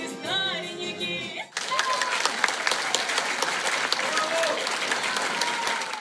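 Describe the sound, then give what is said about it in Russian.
After a brief voice at the start, a large audience in a full hall bursts into loud, sustained standing applause at the end of a folk instrument concert of domras, balalaikas and bayan, dense overlapping clapping that fills the space and continues steadily to the end. “Во время знаменитой песни «Валенки» гости начали подпевать, а в конце всего концерта аплодировали стоя.”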